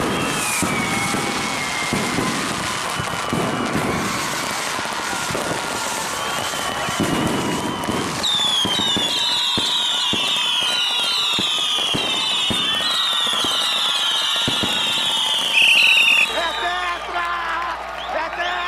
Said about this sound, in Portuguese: gente comemorando, coloca som de fogos de artifício